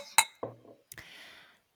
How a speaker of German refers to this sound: ich würde sagen, wir stoßen für heute ein allerletztes Mal an. Mhm. Prost!